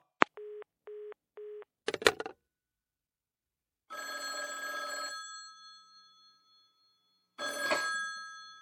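A few short electronic beeps and a clatter, then an old telephone bell rings loudly in two bursts, the first ring fading out slowly before the second begins. No one speaks.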